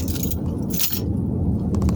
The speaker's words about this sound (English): I gotta move my fucking work badge out of the fucking windshield. Keeps banging against this fucking.